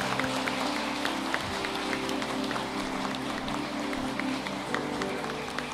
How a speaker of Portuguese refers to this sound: Estamos substituindo o abraço por palmas temporariamente. E é assim que eu quero que vocês os recebam também nesta hora.